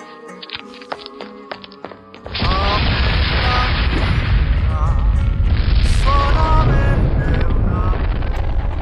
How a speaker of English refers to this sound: Wow. Two exploding buildings in one day. You really got an knack for destruction there, Facilier.